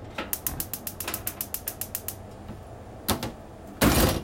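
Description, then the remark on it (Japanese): A gas stove burner's igniter clicks rapidly and steadily, around fifteen sharp ticks, then after a pause a brief rush and a louder whooshing burst as the flame catches; the burner is lit to cook onions in a frying pan. “はいそんな感じで火を点火しますね火を点火点火します”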